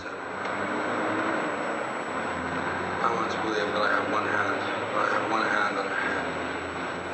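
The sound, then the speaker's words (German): A steady, hissy wash of street traffic with cars rumbling continuously past artist Vito Acconci's studio, recorded with a muffled, low-fidelity quality; faint indistinct voices seem to surface briefly in the middle. “Und so hörten sich die Autos an, die an Acconcis Atelier vorbeifuhren.”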